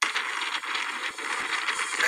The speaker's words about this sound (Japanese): で、この後ですね、えー、その渡ったボートのね、音を聞いていただきたい。川をね、えーアマゾン川を渡った時のボートの音を聞いていただきたいと思います。